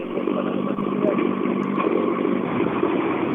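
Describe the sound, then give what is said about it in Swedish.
An approaching Volvo 940 national-class rally car driven by Erik Johansson, its engine roaring steadily and loudly for a few seconds, a dense rumbling drone with a buzzing harmonic tone, holding at an even level throughout. “Eh, man känner igen på lacken eh, att det, det är hans typ av bil, men det, är, det är en 940 nationell istället eh, mot tidigare.”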